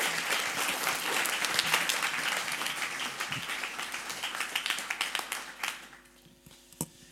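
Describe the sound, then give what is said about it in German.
An audience applauds steadily to thank people for their statements, a dense wash of many hands clapping together that holds for several seconds before thinning out into a few scattered claps near the end. “Und lasst uns einen herzlichen Applaus geben.”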